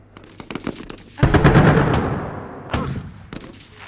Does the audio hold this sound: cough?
no